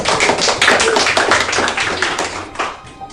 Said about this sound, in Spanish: Muy bien, vamos a darle un aplauso a su compañero.